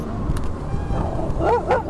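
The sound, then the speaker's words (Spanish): A few short, sharp dog barks arrive in quick succession near the end, rising over a steady low rumble of background noise. “vayan para su casa, escucha, suelte los perros.”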